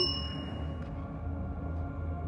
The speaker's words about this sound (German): klingelt es erneut. Ding, ding, ding, ding, ding, ding, ding.